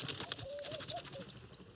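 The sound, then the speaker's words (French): A laughing dove sings in a date palm on a February morning, in the dry season, at an oasis in Mauritania. It coos a soft, bubbling run of short rising and falling notes over a steady hiss of insects and outdoor ambience. “C'est le matin et ils s'éveillent doucement au rythme d'une tourterelle maillée qui chante dans un dattier.”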